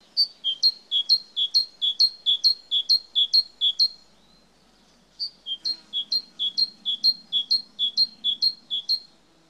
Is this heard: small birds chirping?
yes